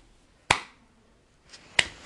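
Two sharp, light slaps of a person clapping half-heartedly with one hand, spaced about a second apart, brief and fairly quiet with nothing else around them.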